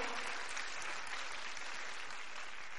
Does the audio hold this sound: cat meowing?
no